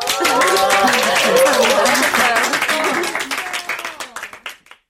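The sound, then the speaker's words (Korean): An audience in a craft workshop class applauds a student's finished display piece: dense, steady clapping for about four seconds, mixed with some voices, then it thins out into a few scattered claps before stopping. “박수 한번 쳐줄까요?”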